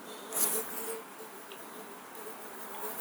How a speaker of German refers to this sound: Was ist das, eine Wespe? Das ist ja riesig. Jetzt ist sie wieder weg.